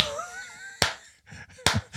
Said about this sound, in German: Okay, then there's a very big echoey clap.